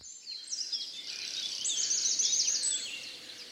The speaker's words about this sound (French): La première chose qui frappe à Pontevedra, c'est le chant des oiseaux. Vous avez vraiment des oiseaux partout. C'est une ville dans laquelle il n'y a pas de bruit de voiture.